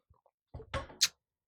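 A door opens as a person leaves, with a short rattle and creak, ending in a sharp higher-pitched click of the latch or hinge. It is fairly quiet, with a couple of faint taps just before.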